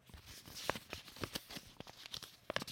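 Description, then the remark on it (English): A piece of paper, a note sponsored by Nobis Hotel Stockholm, is unfolded, giving a run of sharp, irregular crinkles and crackles with no talking. “Okay, I'm I'm opening this piece of paper here. Some ASMR.”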